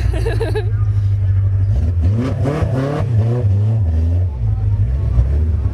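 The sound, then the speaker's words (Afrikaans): A car without a windscreen drones loudly, its pitch rising and falling as it revs, with indistinct voices murmuring underneath for a few seconds. “Baie koud in die kar. ja, jy het nie 'n windskerm nie.”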